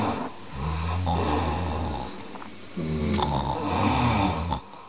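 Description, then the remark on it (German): Loud snoring in two long drawn-out breaths with a brief pause between them: a deep, buzzing rumble with a raspy, rattling edge, from men sleeping at night in an eight-bed room, each snoring in a different way. No one talks. “Ich bin im Acht-Bettzimmer und die erste Nacht habe ich grauenvoll geschlafen, weil es war irgendwie sonst noch eine Frau im Zimmer, sonst nur Männer, die halt irgendwie alle geschnarcht haben, aber alle auf eine sehr unterschiedliche Art und Weise.”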